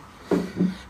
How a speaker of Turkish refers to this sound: Pardon kardeşlerim biraz gürültü olacak ama pencereyi açmam lazım.